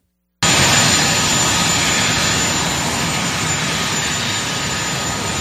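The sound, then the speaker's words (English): A helicopter engine roars loudly, a steady, dense turbine whine and rush that starts abruptly and holds constant throughout, with no voices. “Here he is at the helicopter”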